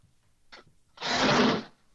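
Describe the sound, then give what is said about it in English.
A cat attacks a person: a brief scratchy rustle, then a louder burst of thrashing, scraping noise lasting under a second before it stops. No one speaks. “Oh, that's that's my cat attacking me.”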